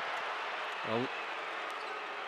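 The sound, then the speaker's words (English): A large arena crowd at an NBA game between the Utah Jazz and the Golden State Warriors roars steadily and fairly loudly, reacting to a foul by Gobert on Curry, a dense wash of arena noise, with one brief voiced shout rising out of it midway. “Crowd reacting there, and Curry.”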